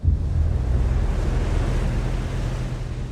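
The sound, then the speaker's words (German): Steady roar of ocean surf with a heavy low rumble and broad hiss, waves washing continuously without a break, fairly loud, with some wind buffeting and no voices. “Eine Besonderheit des geografischen Nordens ist das allgegenwärtige Meer.”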